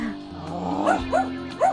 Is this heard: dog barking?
yes